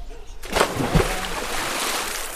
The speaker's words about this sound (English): the splash you're hearing is Padre Fili jumping into the water with some of the students